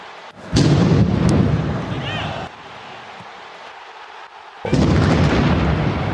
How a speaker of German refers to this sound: Oh, das ist ja also diese Bomben, die sind schon anscheinend ganz schön heftig.